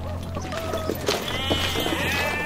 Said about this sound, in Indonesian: Loh, loh, loh, kambing-kambing saya mau dibawa kemana? Sudah, tidak apa-apa. Kambing ini tidak akan kami apa-apakan, hanya untuk diamankan saja.